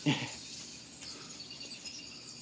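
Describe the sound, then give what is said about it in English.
A steady, high-pitched chorus of crickets chirping continuously in the background, fairly faint and even throughout, with a brief louder rustle or vocal sound right at the start. “Oh, it's crickets.”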